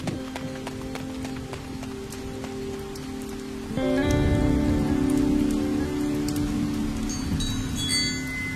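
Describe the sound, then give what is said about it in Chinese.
Light rain falls in a steady, continuous patter with scattered drops, swelling slightly louder partway through, while soft sustained tones hum underneath. No one speaks. “我没事，下雨了，我们快回去吧。”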